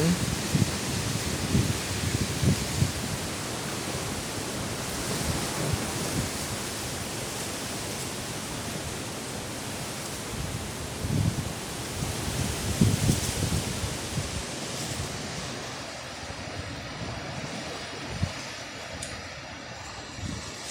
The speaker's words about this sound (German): Ja, es stürmt draußen. Das, ich weiß jetzt gar nicht, ob es meine Worte überhaupt aufnimmt. Das Meer ist so gewaltig und die Bäume rauschen.